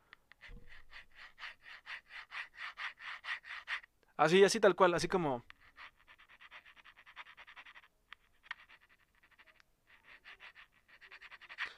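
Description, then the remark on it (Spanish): A voice imitates a scratching sound heard on a pillow while lying in bed, with quick, rhythmic, hissy strokes. The sound stops for a short spoken phrase, then picks up again more softly in uneven bursts. “Así literal, o como si alguien estuviera rascando en, en la almohada.”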